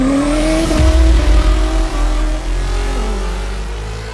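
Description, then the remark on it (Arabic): A race car engine revs hard with rising and falling pitch while tires squeal sharply, loud, at an autocross race, continuing for several seconds with no voices. “لكل عاشق للسرعة ولكل من يفرغ طاقاته في مركبته الشخصية دعنا اليوم نعرفكم على سباقات الأوتوكروس”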